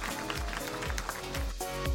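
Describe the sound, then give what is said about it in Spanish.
A church audience applauds God, a dense, steady wash of many hands clapping at even loudness throughout, with low thumping pulses underneath and no one speaking. “¿Le pueden dar un aplauso a Dios?”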